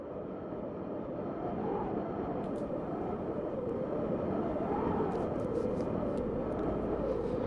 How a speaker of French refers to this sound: C'est un bruit euh, qui peut nous paraître plutôt bleu, plutôt gris, le, son du vent, celui que l'on ne voit pas. Alors je l'aurais mis dans, le rouge, car il fait vibrer les feuilles, les feuilles de l'automne, il les fait même tomber.